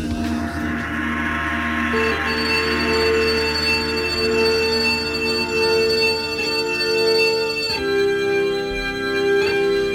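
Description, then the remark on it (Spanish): A song plays on the radio continuously at steady volume, with sustained melodic notes over a full instrumental backing and a clear shift to a new chord partway through. No one speaks over it. “No tan bonito y bien como suena ahora en la radio, pero te puedo asegurar, les puedo asegurar que fue un chocazo, un puñetazo en la memoria sensorial.”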